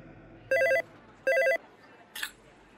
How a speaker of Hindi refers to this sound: Hello हाँ बोलो कब से फोन कर रही हूँ Why don't you pick up the phone?